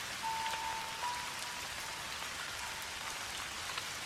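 Steady, even rainfall patters down on hard surfaces at a small, peaceful temple in Japan, a dense wash of droplets that holds at a constant moderate level throughout, with no voices and no pauses.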